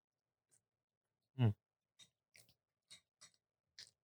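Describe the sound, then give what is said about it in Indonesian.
Someone chews food during a wine pairing tasting, a run of short, soft crunching bites at an irregular steady pace, preceded by one brief louder voiced hum or grunt. “ya guys kalau kita sambil ngunyah-ngunyah gini wine pairing”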